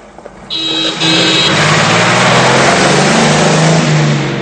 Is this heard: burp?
no